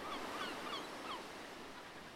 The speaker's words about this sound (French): Est-ce que tu entends les oiseaux? Imagine ces oiseaux en train de tourbillonner autour de toi.